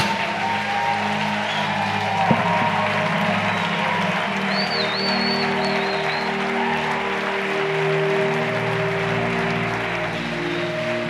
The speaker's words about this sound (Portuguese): Vamos lá, aplaude ao Senhor direito.